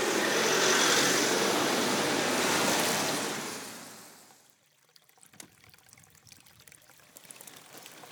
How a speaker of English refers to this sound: Get away from all this traffic.